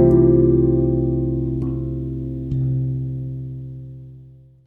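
A short instrumental music passage of sustained, harmonically rich electronic tones with a couple of soft accents, holding steady and then fading out at the end. No voices are present.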